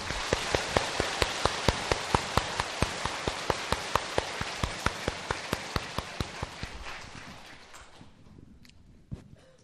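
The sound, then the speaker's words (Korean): An audience applauds in welcome, a dense, steady wash of clapping with sharper claps landing in a regular rhythm, holding loud for several seconds before dying away into quiet. “박수로서 환영해 주십시오”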